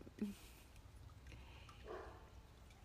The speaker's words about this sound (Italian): Zoe, eh, adesso Zoe abbaia.